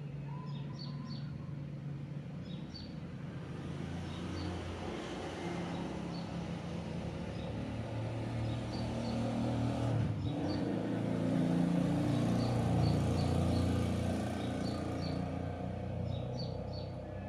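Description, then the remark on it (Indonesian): Traffic rumble swells gradually as a motorcycle and a car pass by, then eases off slightly, with small birds chirping faintly and intermittently overhead throughout. “Sepertinya tadi udah ada motor dan mobil yang lewat ya.”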